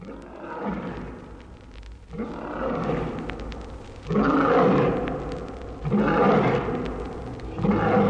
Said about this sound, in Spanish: Del olor del tigre no más, brama con espanto el elefante.